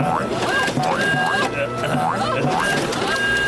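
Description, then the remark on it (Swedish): A municipal photocopier, fetched so that anyone could use it as much as they liked, runs with a steady, loud mechanical whir and hum, and a rising whine repeats roughly every second as the machine cycles through its passes. “Borgmästaren förkunnade att det skulle bli fest, klappade i händerna och lät hämta kommunens kopieringsmaskin så att alla som ville fick pöka den så mycket de ville.”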